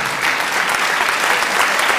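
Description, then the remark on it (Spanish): Steady applause from an audience, a dense wash of many hands clapping at once, loud and continuous for the whole two seconds with no voices standing out. “Están identificados los que aplauden también.”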